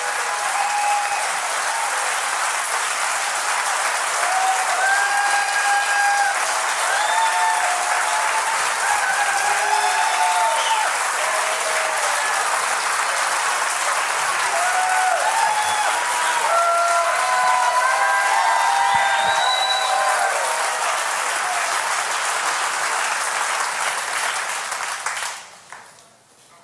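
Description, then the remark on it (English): An audience bursts into sustained, dense applause, steady and loud for about twenty-five seconds with a few cheers and whistles rising over it, then quickly fading out at the end. “All of you who clapped, we're the church.”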